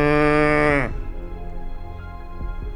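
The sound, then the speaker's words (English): A single loud cow moo with a rich harmonic drone that drops abruptly in pitch and trails off, followed by low background rumble and a couple of faint soft thumps. “Suddenly, Hamilton heard a moo.”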